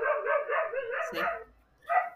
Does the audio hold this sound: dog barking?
yes